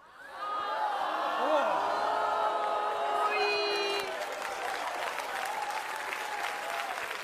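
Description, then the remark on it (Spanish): Men in a crowd break into steady, loud applause that rises quickly and carries on for several seconds, with scattered whoops and cheers and some voices mixed in before it eases slightly near the end. “Mira, solo te aplaudieron los hombres, creo que están de acuerdo contigo.”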